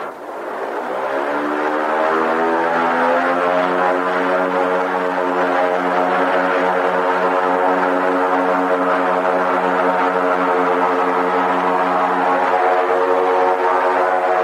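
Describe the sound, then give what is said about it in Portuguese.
A steady, loud propeller drone from inside the cabin of a blimp, the only one in Latin America, as it takes off from the runway at Campo de Marte airfield. It ramps up over the first two seconds, then holds a constant, harmonic engine hum with no talking. “O ouvinte agora pode ter o barulho da decolagem de um blimp deixando a pista do campo de Marte.”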